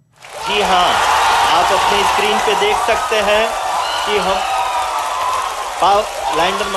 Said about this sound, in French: L'explosion de joie en Inde dans la salle de contrôle de la mission spatiale Chandrayaan 3. Son module a réussi à se poser sur la surface de la Lune, un exploit pour l'industrie indienne que seuls les États-Unis, la Russie et la Chine avaient réussi